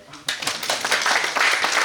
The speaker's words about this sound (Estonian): plaksutame ka muidugi.